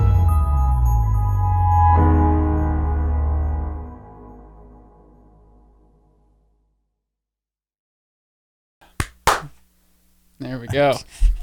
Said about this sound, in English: As if as if I needed a clap after a fart like that.